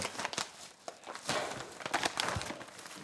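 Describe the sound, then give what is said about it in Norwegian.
Busy crinkling and rustling of paper and packaging as a parcel is opened, with irregular crackly bursts and soft tearing over about three seconds, no voices. “alltid like spennende når man skal åpne en sånn her pakke.”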